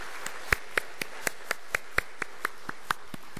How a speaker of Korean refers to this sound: 우리 박수로 한번 같이 격려하도록 그렇게 하겠습니다.